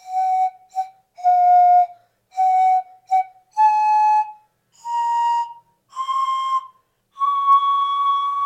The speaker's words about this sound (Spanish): elaboré un siku y cada uno de los tubos que tuviera este siku representarían a cada una de mis abuelas y ancestras